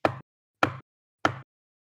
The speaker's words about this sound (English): There's a knock at the door.